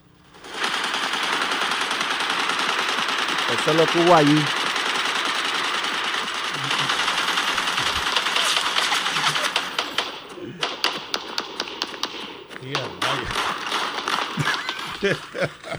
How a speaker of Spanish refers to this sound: Es verdad, estábamos probando el armamento que vamos a tener contra el PNP. El problema es que se estaban, lo estaban probando disparándose entre sí.